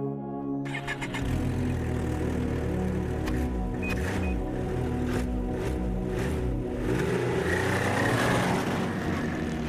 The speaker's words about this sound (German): Kurz heult der Motor auf und schon sausen wir durch die Dunkelheit.